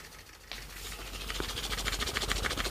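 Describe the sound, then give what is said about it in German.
A Stronic motorized thrusting sex toy, shaped like a classic phallic vibrator, which cannot vibrate but only thrusts, switches on while held in the hand. It rattles back and forth in a fast, steady mechanical chugging rhythm, moderately loud and growing slightly stronger, with no voices. “Der sieht wirklich aus wie ein klassischer Vibrator in Pimmelform. Ja, der kann aber nicht vibrieren, der kann halt nur dieses Rütteln.”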